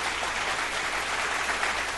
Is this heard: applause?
yes